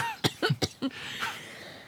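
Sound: coughing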